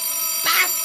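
A telephone rings with a bright, shrill burst that swells briefly and fades, with no voices, over a faint steady tonal hum.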